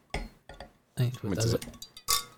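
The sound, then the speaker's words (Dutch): Bright glassy clinks ring out in short bursts, a few sharp taps of real glass against glass, with people talking over and between them. “Dat is echt glas.”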